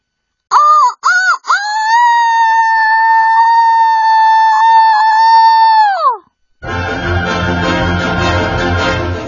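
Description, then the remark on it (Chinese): A loud rooster crow: a few quick clipped notes, then one long, steady, held call that drops off abruptly. After a brief pause, a dense, rough wash of noise follows. “啼鸣声当中，蛇怪开始膨胀，越来越大，越来越大，就像一颗被放在火上烤的栗子一样。”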